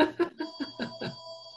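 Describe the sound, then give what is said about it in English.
Someone's other phone rings with a rapid, repeating electronic trill, a series of bright, pulsing bursts about every fifth of a second, moderately loud with no voices over it; it rings twice and then stops. “It's my other phone.”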